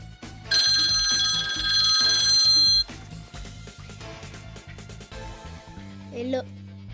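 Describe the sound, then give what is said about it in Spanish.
A telephone rings loudly with a bright, trilling electronic tone that lasts about two seconds, over a steady, pulsing musical beat that continues after the ringing stops. In a children's story, the Metal Man is phoning Fraction Woman and Captain Mathematics. “El hombre de metal llamó por su teléfono la mujer fracción y a capitán matemático.”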